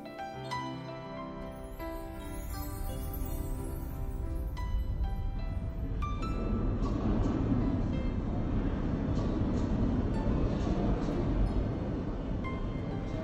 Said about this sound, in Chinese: 伦敦地铁是世界上最古老的地铁，像鱼群一样游动的人们，闪现又消失。